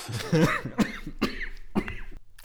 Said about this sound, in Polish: Będziesz musiał ten kaszel ostro wycinać.